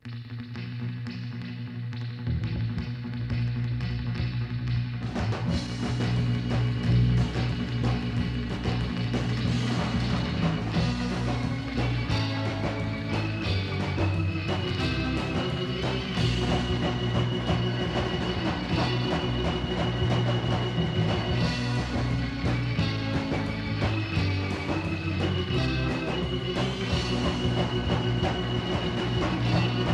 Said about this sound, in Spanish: vamos a escuchar esta delicia también de este disco llamado …